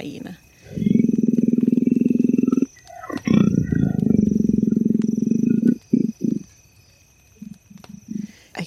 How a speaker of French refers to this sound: Le bruit qu'on vient d'entendre là, c'est un bruit très spécial. C'est celui d'un léopard. Ça ressemble au bruit que ferait un mâle léopard, car c'est un bruit très profond. Et c'est aussi très répétitif. On l'a entendu plusieurs fois.